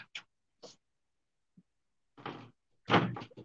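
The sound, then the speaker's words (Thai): A Westerner bangs on a door during a meeting in irregular bursts: a few short knocks, then louder, heavier pounding toward the end, with brief silences between. “ได้ยินเสียงเคาะประตูไหมครับ ตัวอะไรจะผ่านเข้ามา I'm on a meeting okay no no no อ๋อฝรั่งจะพังประตูเข้ามาครับ”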